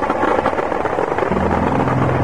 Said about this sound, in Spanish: al promediar la mañana ya tenía el acompañamiento de helicópteros artillados de la Fuerza Aérea.